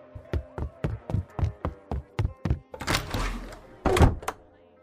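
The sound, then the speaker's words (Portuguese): Quick, even footsteps hurry along as a woman leaves quickly through a door, followed by a rustling scrape and then a solid door thud closing, with a lighter knock just after. No one speaks. “Ela sai pela porta rapidamente.”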